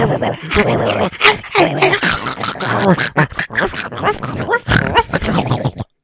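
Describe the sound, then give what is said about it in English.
A person loudly imitates a vicious, rabid dog fighting with a man, producing rapid, gravelly snarls and growling barks in a continuous, intense burst lasting several seconds. “there's rabid a- dog, and he gets in a fight with a dog. And it's like it's like genuinely a mean dog.”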